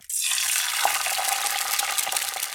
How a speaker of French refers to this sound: Puis, il sortit d'une vilaine écuelle de bois, pleine de farine, et se mit à enfariner tous ses poissons. Et à mesure qu'il les enfarinait, il les jetait à frire dans la poêle.